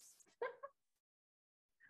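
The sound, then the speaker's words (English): A dog gives a sharp, yelping bark followed by a short pause and the start of another high yip, faint, with no talking over it. “The dog is going crazy here, guys.”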